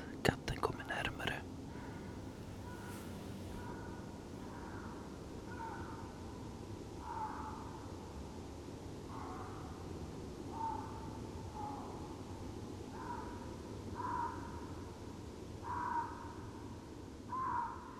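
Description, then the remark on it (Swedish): A lynx calls far off, a series of short, faint, wailing cries repeating every second or two over a steady hiss of background noise. “Jag hör ropande lodjur. Väldigt långt borta.”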